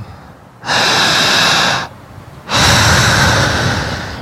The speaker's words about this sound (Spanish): Jalando el aire. Fuerte, otra vez.